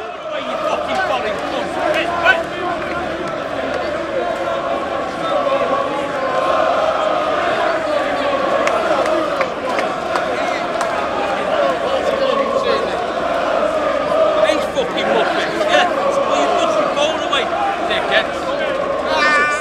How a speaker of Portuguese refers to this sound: Bom, então tá aí deu para ouvir um pouquinho dos torcedores gritando. O que aconteceu foi que muitos torcedores do Manchester City chegaram ao mesmo tempo e começaram a provocar os torcedores do Manchester United pela atual situação do time.